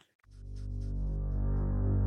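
A deep, atmospheric electronic drone swells in and holds steady, layered sustained tones like the opening of a video game soundtrack, loud with no voices.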